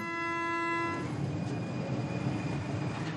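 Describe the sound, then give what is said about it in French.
A Paris metro train in a station sounds a sustained horn-like tone for about a second, then continues with a steady rumbling roar of rolling carriages, loud, with no voices. “Depuis le mois de septembre, les Parisiens peinent à monter dans des rames surchargées.”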